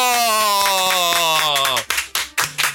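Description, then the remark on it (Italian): Rhythmic hand clapping welcoming a guest, the winner of Fantasanremo 2024, beats steadily beneath a long, slowly falling tonal drone, then the drone stops and a handful of louder, sharper claps ring out on their own. “Un applauso al pensionato!”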